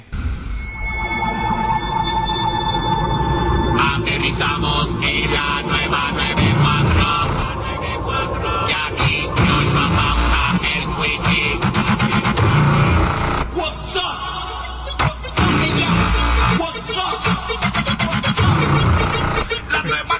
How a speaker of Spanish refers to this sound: vamos a analizarlo, podemos dar pausa aquí, analizar lo que fue el primer jingle que salió de intro para WhatsApp de la nueva Dale, dale, play, dale play. Dice así.